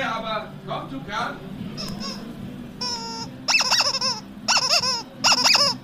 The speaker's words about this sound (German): Jetzt, jetzt, jetzt komm. Einmal quietschen. Ach, so besser.